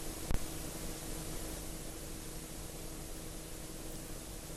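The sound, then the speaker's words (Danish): Steady, even hiss of television static, the snowy white noise of an untuned set, running unbroken with one sharp click near the start and a faint low hum underneath. “Sne.”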